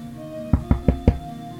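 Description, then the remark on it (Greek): Four firm knocks on a door by a wolf, in a steady, evenly spaced rhythm, each a sharp low thud, with a faint constant hum in the background and no voices. “Δεν πέρασαν πολλές ημέρες, χτυπάει η πόρτα ένας λύκος.”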